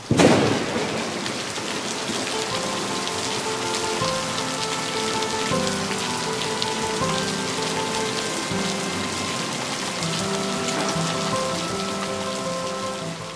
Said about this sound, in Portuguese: A primeira gota de chuva caiu na minha testa enquanto eu me aproximava da porta da sala. Uma última olhada para a roseira, agora agraciada com os pesados pingos de chuva que caíam imponentes sobre tudo que havia ali.